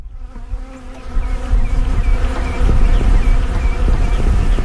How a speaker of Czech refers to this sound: To, co právě slyšíte, jsou včely Kamala Bela